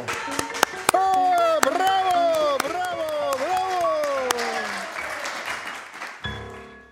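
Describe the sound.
Enthusiastic audience clapping after a performance by the Prevalski family: rattling applause with sharp, irregular individual claps over a steady wash, while a wavering, sing-song voice-like tone rises and falls above it before everything cuts off abruptly.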